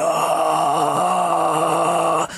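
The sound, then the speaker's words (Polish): A voice imitates the continuous eerie wail heard during the alien scenes of a film, a sustained, steady moaning tone held loudly for about two seconds before cutting off abruptly. “a ogólnie cały czas jest zrobione tak, że jak widzimy scenę z obcymi albo z punktu widzenia obcych, te sceny są przedłużane w nieskończoność, to cały czas widzimy takie ciągłe wycie, takie”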